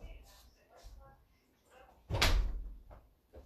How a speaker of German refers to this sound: Ich muss, ich muss nochmal schnell die Tür machen.